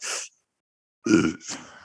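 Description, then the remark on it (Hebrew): A short hissy breath, a pause, then a loud sneeze bursting out, followed by a breathy, fading exhale. No one speaks. “סליחה, תודה, לבריאות.”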